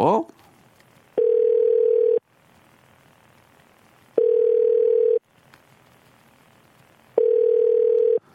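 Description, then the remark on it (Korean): A telephone ringback tone sounds three times, each a steady mid-pitched one-second beep followed by about two seconds of quiet, repeating evenly as radio host Park Myung-soo's show calls a listener and waits for the call to connect. “끝번호 전화 한번 걸어볼게요.”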